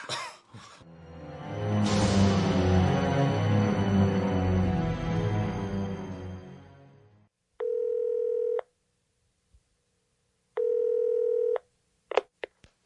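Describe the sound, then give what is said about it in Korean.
A loud, dense rumble of noise gives way to a telephone line tone: two steady electronic beeps, each about a second long with a pause between, followed by a few sharp clicks, as a Finance Ministry tax official calls his wife from a hideout in the Gwacheon Jugong Apartments in early August. “과천 주공아파트 아지트에서 부인에게 전화를 걸었다.”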